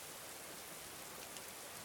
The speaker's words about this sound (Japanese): 1年半前の雨が滴る6月赤松は自分の店で店番をしていた